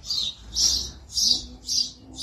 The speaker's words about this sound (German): So was höre ich? Vögel, die zwitschern,